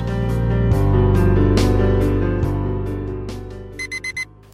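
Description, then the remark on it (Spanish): An alarm clock goes off, a loud, dense electronic ringing that runs for several seconds before ending in four quick, bright beeps. No one speaks. “Suena el despertador”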